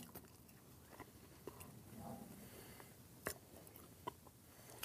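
Chewing with a bite near the start, then steady wet mastication and scattered sharp crunchy clicks, fairly quiet, no talking.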